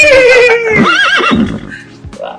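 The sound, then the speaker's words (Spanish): A horse neighs loudly, one long wavering whinny that slides down in pitch and breaks into shaky trills before trailing off into a few soft snorts. “Tomen dos litros de agua, lávense los dientes tres veces al día. Relinchen. Y relinchen.”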